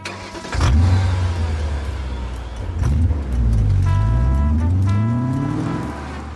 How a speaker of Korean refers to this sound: 너 벨트 맸지? 출발한다.